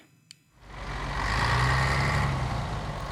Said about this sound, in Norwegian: En buss driver av gårde på tampen av rushen i hovedstaden. Selv en dag i fellesferien er nesten alle seter i bruk.